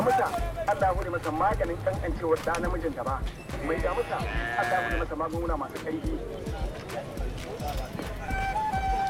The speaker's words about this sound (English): This little klaxon that you hear in the market is the ice cream seller. I love to use it in my music.